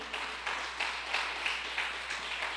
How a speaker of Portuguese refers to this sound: Dá um aplauso ao Senhor aí.